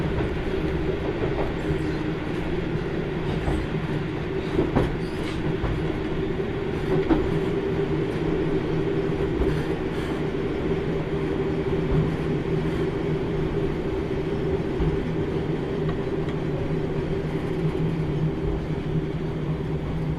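The Kyushu Odan limited express No. 3 train on the Hōhi Main Line in Japan, between Bungo-Taketa and Miemachi, runs steadily along the rails, a continuous low rumble with a humming drone and faint rhythmic wheel clicks, holding an even loudness throughout with no voices.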